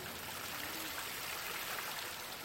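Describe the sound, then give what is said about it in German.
Water splashes steadily down from the upper bowl of a tall fountain, set up in 1962 in the corner formed by a former Jesuit college; a continuous full-bodied patter and rush with no pauses, moderately loud. “Ist ein schöner Hingucker, vor allen Dingen im Sommer, weil er sehr hoch aufragend ist und oben eine schöne Schale hat, aus denen dann das Wasser richtig schön satt platschend herunterfällt.”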